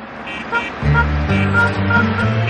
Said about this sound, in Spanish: Un taxi circula por una carretera y se cruza con otro